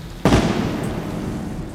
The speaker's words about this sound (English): And still no sign of Christopher Dorner. Then, around 4:20 p.m., a pistol shot rang out from inside.